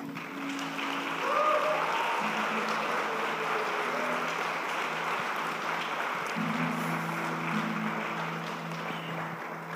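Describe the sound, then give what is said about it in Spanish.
A crowd gives a sustained ovation to the King, Christ the Lord: dense, steady clapping lasting the whole time, mixed with cheering and held vocal tones that rise and fall underneath. “Dale una ovación al Rey.”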